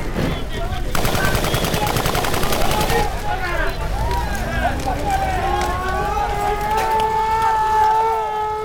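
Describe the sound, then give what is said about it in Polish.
A loud, rapid burst of automatic gunfire rattles for about two seconds as officers fire incendiary rounds at thatched roofs and set buildings alight, then stops, leaving raised voices calling and wailing over a rumbling background. “Strzelali pociskami zapalającymi po strzechach, podkładali Ogień wewnątrz budynku.”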